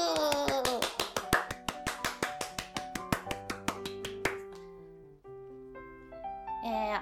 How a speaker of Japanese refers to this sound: 拍手